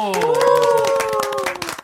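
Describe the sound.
A short burst of applause in a studio, welcoming a reporter who has just come in: quick, steady hand claps patter for about two seconds under a voice that calls out in a drawn-out, rising and falling tone.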